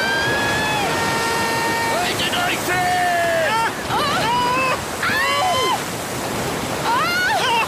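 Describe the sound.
A large wave crashes over a boat, a loud, continuous roar of rushing water and spray filling the whole stretch, while voices call out and exclaim over the din.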